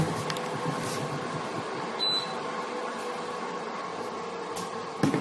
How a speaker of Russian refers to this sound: Так, и периодически буду выключать этот самый, как его, господи, кондиционер, чтобы он совсем не накрылся, бедный. Что жара у нас, конечно, эпическая стоит.